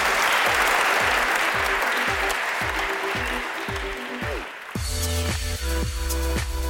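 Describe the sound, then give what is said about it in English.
Steady applause from an audience for a panel, a dense wash of clapping that fades out after about five seconds while a rhythmic, plucked music plays beneath and then carries on by itself. “A round of applause for our panel.”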